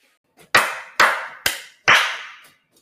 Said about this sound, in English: I'm clapping.